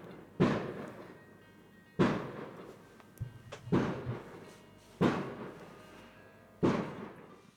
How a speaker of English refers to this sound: 我们正好周围开始放烟花，又有一段高潮，非常的贴合现在的音乐。待会儿音乐停了，大家就能听到。See all the fireworks.